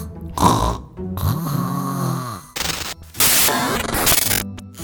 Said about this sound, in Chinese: 他打开电视，想看看正在播出什么节目，但他实在太累了，只听到电视发出沙沙的声音，就呼噜呼噜的在沙发上睡着了。